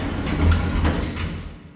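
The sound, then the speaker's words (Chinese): Hotel elevator doors slide shut in one continuous mechanical rumble and hiss. A low hum runs beneath, swells briefly midway, then the sound tapers off as the doors close. No voices. “就在倒下的一刹那，电梯门关上了。”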